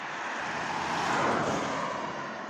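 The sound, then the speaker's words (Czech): A car sweeps past through the village of Bukovník, a broad rushing whoosh that builds to a peak midway and then eases off, with no voices over it. “Mimochodem doteď auta vůbec nejezdily.”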